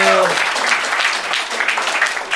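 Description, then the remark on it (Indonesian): An audience breaks into steady applause for everyone who came, a dense crackle of many hands clapping at a fairly loud, even level throughout, with a brief harmonic tone of a voice fading out at the very start. “Ya tepuk tangan teman-teman buat semua yang udah datang sini.”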